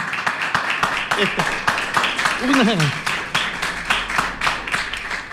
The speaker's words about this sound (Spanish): este aplauso grande de todos los que están acá y de todos los que en la casa están escuchando y que seguramente tienen muchas ganas de aplaudirlo. Este aplauso es para usted.